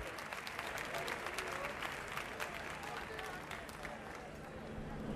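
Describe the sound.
An audience in Suipacha applauds a sextet steadily and loudly for several seconds during a live broadcast, dense clapping mixed with crowd voices as they call for an encore, the applause holding at an even level throughout.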